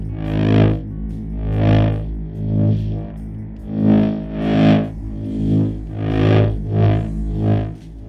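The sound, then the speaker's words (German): A harsh, heavily overdriven buzzing tone run through a guitar amp with the gain turned up very high, pulsing in about ten rhythmic swells with a gritty, saturated texture and constant low hum beneath. “Um diesen Sound jetzt noch prägnanter und elektrischer zu machen, jagten wir es durch einen Gitarrenamp, an dem wir das Signal stark verzerrt haben.”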